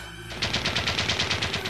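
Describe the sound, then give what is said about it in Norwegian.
A rapid burst of pistol gunshots, around a dozen loud cracks fired in quick even succession after a brief low rumble, with no voices; an enraged car owner firing several shots toward a teenage boy. “Gutten forsøkte desperat å komme seg unna den hissige bileieren som avfyrte flere skudd i retning tenåringen.”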